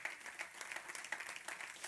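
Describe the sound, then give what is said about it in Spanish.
An audience applauds the Lord steadily during an evening church service, many hands clapping in a dense, continuous patter with a bright, crisp texture and no pauses. “Den un aplauso al Señor esta noche.”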